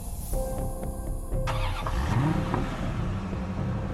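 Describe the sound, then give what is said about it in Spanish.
A car engine cranks and catches, then revs up with a rising whine before settling into a steady idle rumble, fairly loud, with no voices. “Tomó su auto y fue hasta la puerta de la casa donde Linda vivía.”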